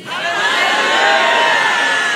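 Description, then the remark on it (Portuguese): A large crowd lets out a loud, sustained collective shout, many voices roaring together at full volume for a couple of seconds, dense, with no single speaker standing out. “Você pode dar um grito bem alto aí para Satanás ficar surdo?”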